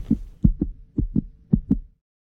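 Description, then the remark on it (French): A muffled heartbeat heard through the belly with an ear placed on the navel: low, paired lub-dub thumps repeating at a slow, steady rhythm, about four beats, with no voices. “Slowly, a beating sound with a smoothly rhythm, a living instrument.”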